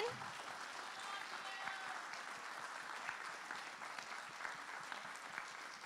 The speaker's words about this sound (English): All right, can you, the seniors stand up and can we applaud you one more time obnoxiously? Can we stand? Will you stand and applaud with me? These beautiful creations of heaven.